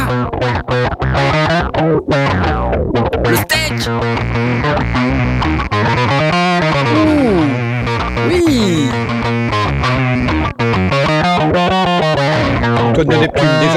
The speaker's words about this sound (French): Il y a une espèce d'octaveur en même temps que la disto là. hein. C'est plus mon registre là. J'aime beaucoup. J'aime beaucoup ce son. Ouf. Oh La matière. Il y a un octaveur Écoute ça